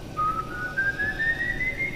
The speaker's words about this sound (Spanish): Entonces estaba, una noche yo estaba lavando los platos, había terminado de barrer y de repente escucho un silbido.